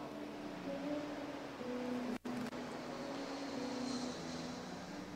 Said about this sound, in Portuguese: Um desse avião ainda vai me levar para Israel.